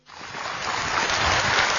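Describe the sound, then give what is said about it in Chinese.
Warm applause from an audience at a xiangsheng (crosstalk comedy) stage performance rises quickly out of silence into a dense, steady wash of clapping that holds loud and even throughout, with no voices over it. “通过大家热烈的掌声啊 啊， 能发现一个问题， 什么问题？”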